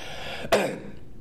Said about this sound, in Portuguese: Eu tô até com medo agora que eu tô tossindo.